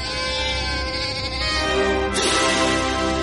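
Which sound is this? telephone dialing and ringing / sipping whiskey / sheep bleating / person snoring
sheep bleating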